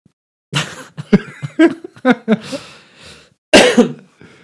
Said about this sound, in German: ähm, so Huster können wir übrigens rausschneiden.